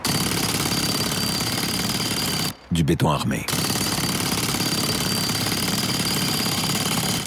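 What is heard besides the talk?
jackhammer pounding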